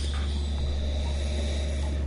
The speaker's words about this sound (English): Uh, I mean, just you get the alcohol warming just by sniffing it. I mean, you just get that, that wafting alcohol into your olfactory organs.